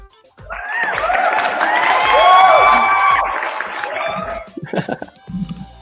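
A crowd breaks into loud applause and cheering, with high whoops and shouts swelling over a few seconds before tapering off, followed by a brief voice.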